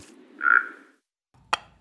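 A small frog at a pond gives one drawn-out, throaty croak, then after a short silence two sharp, brief plops or taps follow as it jumps from a lily pad to the muddy bank and back. No one speaks.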